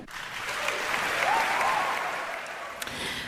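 Sustained applause from a crowd for an a cappella number by a women's choir, a dense steady clatter of many hands clapping with a few faint whoops or cheers rising briefly in the middle.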